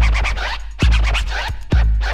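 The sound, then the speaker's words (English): Rapid DJ turntable scratching, with bursts of record-scratch sweeps cut rhythmically over a heavy, booming bass beat that pounds in at regular intervals. “My man can Cut and scratch.”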